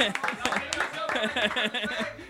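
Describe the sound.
Applause rattles steadily through the whole moment, a dense patter of clapping mixed with chuckles and overlapping voices talking at moderate volume.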